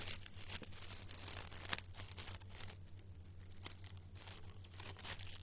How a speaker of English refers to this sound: Turning pages, I'll be there in a minute.